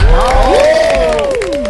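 An audience bursts into loud applause mixed with rising cheers and whoops, welcoming a guest, the director of a theatre play, on an evening show. It holds steady and dense for a couple of seconds with no speech over it.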